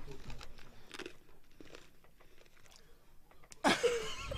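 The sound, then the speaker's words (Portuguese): Crunchy chewing and biting of food, with irregular bursts of mastication building to a louder, sharp crunch near the end. “Ah, já é de comida. Mastigando.”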